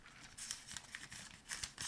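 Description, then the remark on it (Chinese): A paper page being turned, with a run of soft, bright crinkling and rustling bursts over about two seconds. No one speaks. “下一个，好，翻页第九节”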